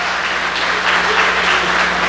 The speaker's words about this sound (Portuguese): Quantos anos você tem, meu irmão, de casado? Quanto? 44? Dá uma salva de palmas para esse casal aqui, 44 anos.